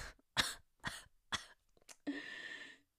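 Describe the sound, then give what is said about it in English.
Three sharp coughs in a steady rhythm, followed by a short raspy breath or throat-clearing sound, with no talking. “it just makes me cough and lose my breath every time I gotta restock on my glue adhesive.”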